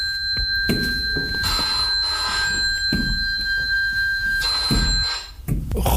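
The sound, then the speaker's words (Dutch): An old-style telephone bell rings loudly and continuously, a steady high metallic trill, with no voices over it. “Oh, de telefoon gaat.”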